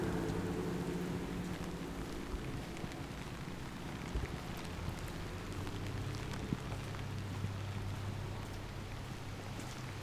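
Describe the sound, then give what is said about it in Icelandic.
Heavy rain pours down in Reykjavík in a steady, dense hiss with scattered drops spattering, over a low constant rumble. No one speaks. “það fór að rigna í Reykjavík. Það er bara eins og held sígur fötu.”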